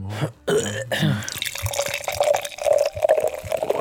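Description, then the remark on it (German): Cider, a kind of apple wine, pours into a glass, a steady gurgling, splashing stream whose pitch gradually rises as the glass fills, with a few brief bubbling sputters and no voices. “Das ist Cidre. Citra. Citra ist so, so, eine Art Apfelwein.”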